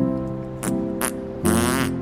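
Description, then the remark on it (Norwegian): A buzzy, pitched farting sound held for about two seconds, with three raspy bursts breaking through, the last one longer and louder, as someone tries to fart-sing. No talking. “Oh, la meg prøve å fjertesynge på til den andre siden som et farvel.”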